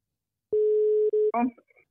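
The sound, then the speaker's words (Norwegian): A steady, fairly loud electronic telephone ringing tone sounds once, holding for under a second, then cuts off as a voice briefly answers the call. “For nå skal vi ringe til”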